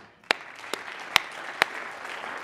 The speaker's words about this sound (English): So God bless you, and I applaud you.